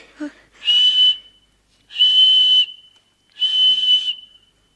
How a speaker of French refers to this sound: Tenez, quand vous aurez besoin de moi, quand vous voudrez que je vienne, vous n'aurez qu'à siffler avec ceci.